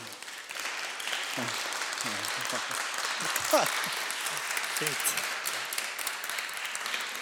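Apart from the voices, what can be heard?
audience applause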